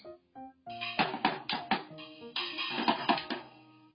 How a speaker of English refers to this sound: Bang, bang. What's that sound? It's too noisy. Put your drum away.